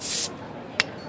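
A bottle being popped open: a loud, brief fizzing hiss, then a single sharp, bright pop a moment later, with no talking.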